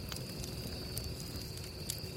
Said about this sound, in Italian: Ascoltiamo i grilli, il vento, lo scoppiettare delle fiamme e poi inizio a raccontare.